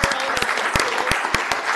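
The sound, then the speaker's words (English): A crowd applauds steadily, dense overlapping claps with a few sharper, louder hand claps standing out, forming a continuous wash of clapping from start to finish. “Isn't that amazing? That's a clap.”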